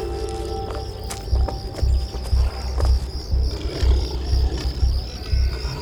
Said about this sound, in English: I heard the dogs before I could see them, inside an oversized doghouse connected to a fenced in area where a man was kneeling with his hands tied behind his back.